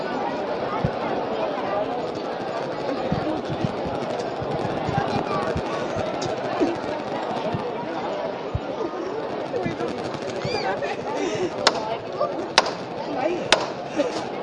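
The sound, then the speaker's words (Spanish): A steady crowd murmur with scattered voices fills the scene as bearers lift a Holy Week procession float of Jesus praying in the garden, marked near the end by three sharp, loud wooden knocks spaced about a second apart. “Sí, eh, avanza un poquito por el cortejo y en este momento se va a proceder a hacer levantar de Jesús orando en el huerto.”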